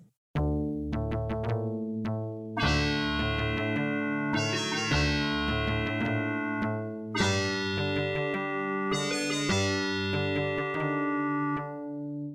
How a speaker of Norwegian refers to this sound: skal vi smelle i gang med Snurre pausemusikk?